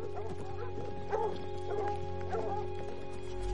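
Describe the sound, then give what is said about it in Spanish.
Dogs bark a few times at irregular intervals while running ahead of riders on horseback across the fields, yips and woofs over a steady low hum, with no talking. “Cabalgan por el campo. Los perros van delante.”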